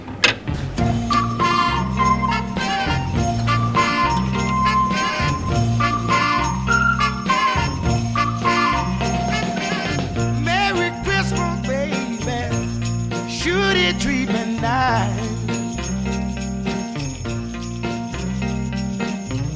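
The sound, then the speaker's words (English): A classic soul Christmas song intro plays loud and full, with a steady bass groove pulsing beneath bright, tinkling instrumental lines and no voices yet. “This is a classic track.”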